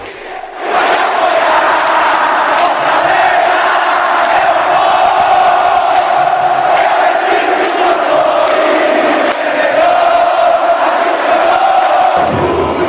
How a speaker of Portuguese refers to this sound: E ó, torcida do Fortaleza fazendo festa, ó.